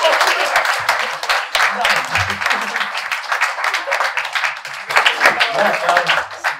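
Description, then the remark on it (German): Sustained audience applause for the event's two moderators at the Champagneria venue, dense crackling claps filling the whole stretch at a steady loud level, with a few voices and cheers mixed in. “Du, deswegen macht bitte einen 12-Punkte-Applaus nochmal für unsere beiden,”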